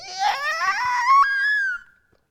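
A single high, whining squeal of brakes, vocally imitated, rising and wavering in pitch for about two seconds before cutting off, loud with no other sounds around it.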